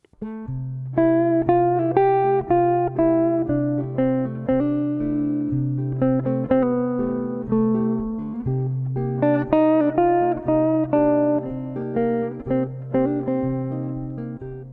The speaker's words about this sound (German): Also vier Takte C Major 7, vier Takte C Moll 7.